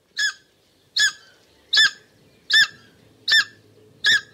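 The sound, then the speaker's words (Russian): A takahe, a very rare flightless bird of New Zealand, calls: six loud, honking cries repeated at an even, steady pace, each short and harsh with a nasal ring, against a quiet background with no talking. “Это крики редчайшей птицы такахе.”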